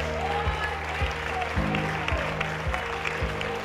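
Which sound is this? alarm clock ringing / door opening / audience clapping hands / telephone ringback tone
audience clapping hands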